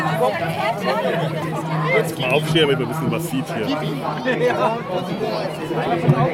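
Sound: crowd chatter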